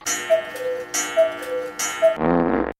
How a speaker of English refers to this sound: that was the noise that we hear when there's a new message on the 347 spatula hotline